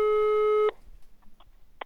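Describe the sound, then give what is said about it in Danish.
A telephone ringback tone sounds once on an outgoing call to the Danish green think tank Concito, a steady, clear electronic beep lasting under a second, then cuts off into near-silence with a few faint clicks as the line picks up. “Da jeg har besluttet mig, ringer jeg til”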